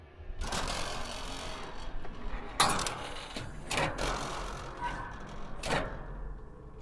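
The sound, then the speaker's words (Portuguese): An attic trapdoor is pulled open by hand with a long scraping rumble, broken by several sharp knocks and thuds as it shifts and swings, with no voices. “Junto da porta abrindo, desce aquele cheiro estrondoso de mofo, de alguma coisa podre.”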